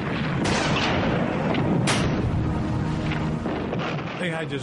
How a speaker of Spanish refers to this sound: El quinto día de batalla una intensa nevada se vio seguida por una lluvia de bombas alemanas sobre las posiciones norteamericanas en el pueblo.